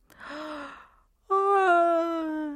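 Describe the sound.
In a children's bedtime story, a voice acts out a big yawn for the character Xiaopu just before he falls asleep: a breathy intake rising in pitch, a short pause, then a long, loud, voiced 'aah' that slowly drifts downward in pitch.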